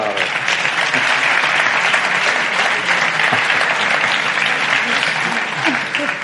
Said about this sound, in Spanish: muy bien, muy bien. un aplauso, un aplauso.